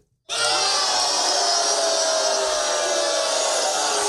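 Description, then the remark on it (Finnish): A crowd sound effect: many voices suddenly erupt into a loud, sustained, dense roar of disapproval, jeering and booing continuously for several seconds with no individual speech standing out. “Yleisö ei nyt selvästikään tykkää.”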